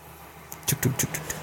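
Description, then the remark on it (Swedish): A train rumbles past in the background, its rhythmic clattering bursts rising suddenly out of a quiet hum and repeating in quick succession, with no voices heard. “Det kommer tåg bakom han som tänker prata över.”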